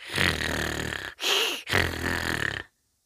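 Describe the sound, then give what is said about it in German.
A voice imitates the racing engine of small racing snails with loud, gravelly grunting bursts: one long rumbling stretch, a short break, then two more growls, alone with no talking. “Und das hörte sich an wie Grunzen.”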